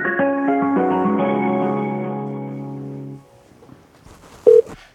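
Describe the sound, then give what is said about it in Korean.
An electronic phone ringing tone plays steadily for about three seconds, layered and bright, then fades to near silence before a single short, loud beep near the end; a Korean radio show, Lee Eun-ji's Gayo Gwangjang, calling a listener. “전화 한번 걸어보자요. 6184님께 전화 한번 걸어볼게요.”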